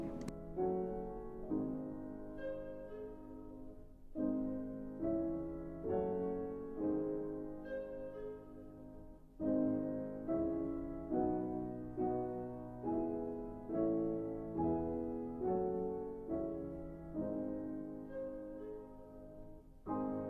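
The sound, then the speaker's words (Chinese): In the short orchestral piece "The Cuckoo", slow, soft piano chords repeat at an even walking pace (andante) while a clarinet plays a recurring two-note falling figure imitating a cuckoo's call deep in the forest, creating a calm, hushed mood depicting a quiet forest, with no voices. “是的，这是用一种管乐器单簧管吹出来的哟。”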